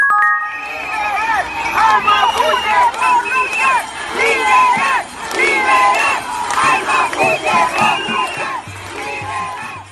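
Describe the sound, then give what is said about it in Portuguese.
A protest crowd of about 2 million people shouts and chants in the streets of Santiago, Chile, in an International Women's Day march centred on Plaza Italia, many voices loud and overlapping in surging, rhythmic waves that keep going for the whole clip. “Uma multidão de cerca de 2 milhões de pessoas tomou as ruas de Santiago em uma manifestação que marcou o Dia Internacional das Mulheres.”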